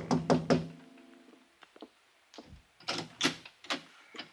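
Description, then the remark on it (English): A quick run of three firm knocks on the wooden door of Janice Floyd's apartment, followed after a pause by several softer, scattered taps and thuds, with no voices. “I was still weaving on my feet when I tapped on the door.”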